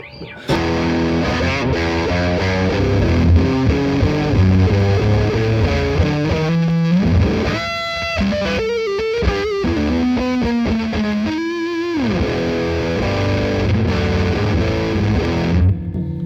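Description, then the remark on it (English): A loud, saturated electric guitar played through a fuzz pedal with all the bottom end increased plays thick, heavy riffs with a strong low end, sustained buzzing chords, and a few brief higher melodic runs, with no talking. “okay, so let me, let's fuzz it up. So I'm going to increase all the bottom end.”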